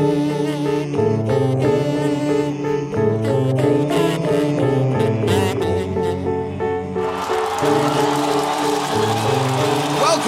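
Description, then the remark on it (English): Steady, harmonically rich music plays throughout. In the last few seconds a recorded crowd cheer swells in beneath it, adding a loud, hissy wash of cheering. “Uh, thank you, pre recorded cheer.”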